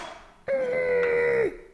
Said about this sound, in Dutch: Ik wou zeggen, ik ga even kijken of ik de vaatwasser ergens mee kan vullen. Maar ik had spullen.